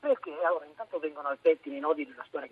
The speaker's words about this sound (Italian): ti, st- ti sento male, parla bene nei buchini del tuo cellulare.